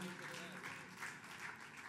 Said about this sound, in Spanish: Señor ese, ese aplauso. Si es para el Señor, hágalo con fuerza. Maravilloso, maravilloso es el Señor.